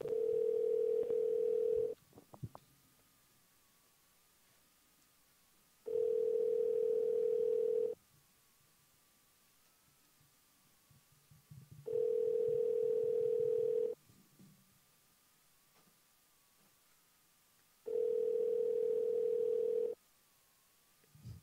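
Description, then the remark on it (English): A telephone ringback tone on an outgoing phone call repeats four times, each steady burst lasting about two seconds with roughly four seconds of near-silence between, clear with no talking over it, before the call goes to voicemail. “I hope they answer.”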